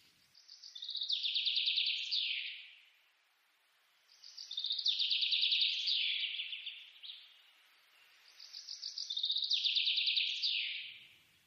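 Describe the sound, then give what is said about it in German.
A songbird sings three bright, rapid trilled phrases of about two seconds each, separated by short pauses, clear, with no voices or other sounds around it; birdsong picked from a sound designer's sound archive. “mal sozusagen das geilste Vogelgezwitscher ever herauszusuchen, das du dann da findest.”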